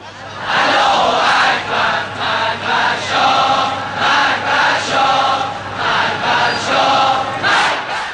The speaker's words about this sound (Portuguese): Você ouve aí ao fundo uma multidão protestando contra o governo do Shah Reza Pahlavi em 1978 no Irã.